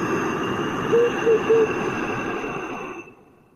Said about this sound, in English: So it sounds what they call in uh, yoga oceanic breathing because it sounds a little bit like the ocean. So I, will I'll demonstrate now. So in through the nose.